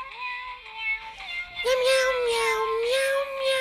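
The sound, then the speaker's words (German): A tinny electronic tune made of synthesized cat meows plays from the small speaker of a musical Happy Birthday greeting card, steady and fairly loud, with sustained mewing notes shifting in pitch over a thin hiss. “Okay, also hier ist, hier ist eine Karte, hier steht Happy Birthday to you und da sind drei süße Katzen, die auf einem Piano zocken.”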